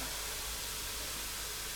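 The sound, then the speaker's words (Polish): Food sizzles steadily in a frying pan on a gas stove, a continuous crackling hiss with no voices and no pauses. “W czasie, kiedy smaży się już nasza smażeczka, nożeczka.”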